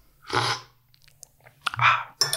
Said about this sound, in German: Ich muss noch mal schlürfen. Ja, schlürf mal.